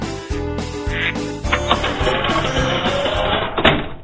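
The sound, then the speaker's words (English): A dense, loud flurry of duck quacks, honking bursts overlapping one another in quick succession, with no one talking. “We'll be right back after Bob gets the ducks out of his living room.”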